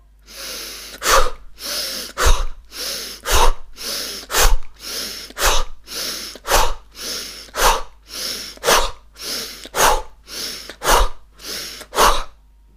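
A steady series of about a dozen sharp, forceful breaths in a regular rhythm, each a loud airy burst ending in a quick snap, with no talking, made in a breathing exercise while the arms are raised overhead and pulled down quickly on both sides.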